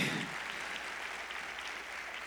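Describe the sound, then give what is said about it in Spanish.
An audience applauds the Lord during an afternoon church service: a dense, steady wash of many hands clapping, crisp and bright, holding at an even level for a couple of seconds with no voices on top. “Aplauda con fuerza al Señor en esta tarde.”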